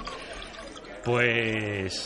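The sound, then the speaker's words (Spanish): Beer splashes and gurgles steadily into a glass for about a second at a roadside bar, fairly quiet, before a person's voice breaks in with a laugh and a short word. “¿Whisky o cerveza?”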